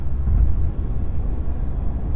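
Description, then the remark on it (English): Steady low road rumble from inside a moving car getting on the freeway, a dense continuous drone that stays loud throughout with no talking, like driving up to highway speed. “So anyway, um, getting on the freeway here.”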